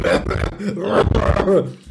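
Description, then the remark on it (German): A voice acts out a father's harsh coughing fit over a plate of fries, a rapid string of rough, throaty hacks and gravelly bursts, loud for about two seconds with no clear words. “Und dann kommt mein Vater rein, stellt diesen Teller ab und kriegt erstmal einen Hustenabfall genau über den Pommes.”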